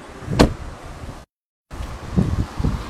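Strong summer wind in Inner Mongolia roars and buffets the microphone in broad, low rumbling gusts, with a sharp burst early on, a brief dropout to silence midway, then more gusty blowing.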